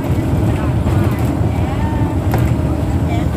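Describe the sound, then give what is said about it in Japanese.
A loud, steady low rumble from inside a battered old, mostly empty bus driving straight along a rural road in southern Laos toward Pakse around 7 a.m., with occasional clattering rattles and bumps cutting through the constant road and engine noise. “バスの中はね結構ガラガラなんですけどあのかなり、えーと、何て言えばいいんでしょうか痛々しいバスで、えー えっと、音がね騒音がね結構ガタガタゴトゴトうるさいと思います今、えー、ラオス南部の田舎の道をまっすぐ走っているところ”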